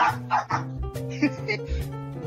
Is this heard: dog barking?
yes